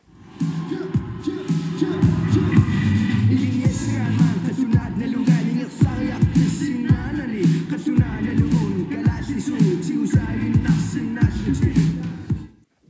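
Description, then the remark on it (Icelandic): A rap song from a film plays steadily, with a rhythmic vocal delivered over a thick, pulsing bass-heavy beat and sharp percussive hits throughout. “meðal þeirra sem að heyrist í er það rapparinn”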